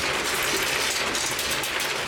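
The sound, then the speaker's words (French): Ambient noise of a robotized marble-dropping cyber bass music machine: a dense, steady clatter of rolling and clicking marbles and whirring mechanism, continuous and fairly loud throughout, with no voices. “Ça, c'est le son ambiant de la machine.”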